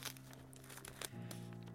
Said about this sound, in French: Une fois, ma maîtresse a tracé en souriant le tour de ma patte jusqu'à ce que je sorte mes griffes et crac Sans scrupule, j'ai fait un trou dans le papier.